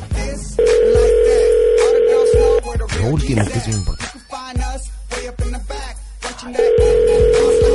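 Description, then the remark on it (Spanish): A phone call ringing out: a loud, steady mid-pitched ringback tone lasting about two seconds, then a stretch of people talking, then the tone starting again. “Contesta, por favor, por favor.”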